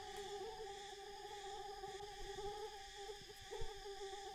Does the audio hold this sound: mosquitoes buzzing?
yes